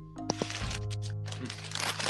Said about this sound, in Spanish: Ahí trasteando papeles o... Sí, ya.